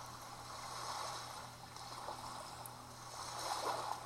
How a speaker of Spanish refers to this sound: Escucha las olas del mar.